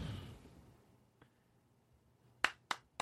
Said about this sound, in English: Boosh. we overly applaud for the 300 show.